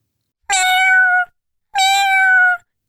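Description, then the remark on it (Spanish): Two loud meows from a cat, each drawn out for about a second with a short pause between them, and no other sounds around. “Pues yo quiero encontrar a mi gata.”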